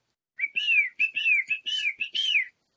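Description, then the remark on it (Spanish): A small bird sings a bright, warbling song of about six quick, sliding whistled phrases strung together over two seconds, clear, with nothing else around it. “Estaba imaginando que había un grupo de gente en un cuarto, en una conferencia, y afuera estaba un pajarito, y un pajarito empezó a cantar.”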